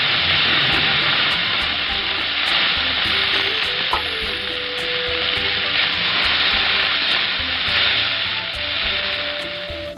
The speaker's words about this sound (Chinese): 锅内倒入适量的食用油，加热后放入部分蒜蓉爆香。